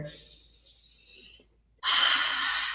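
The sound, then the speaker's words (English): A slow, airy breath drawn in for over a second, filling the chest up to the collarbones, a brief pause, then a louder, fuller rush of breath. No talking. “So if I breathe here, i um, here, then then breathing here, filling here, then breathing here, filling here, and then breathing all the way to fill up to the clavicles.”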